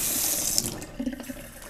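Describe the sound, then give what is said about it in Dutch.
Hot water is poured into a mug of instant coffee, a steady hissing stream that turns to a brief gurgling splash as it fills. No talking. “Oh, ik ben vergeten heet water bij mijn koffie te doen.”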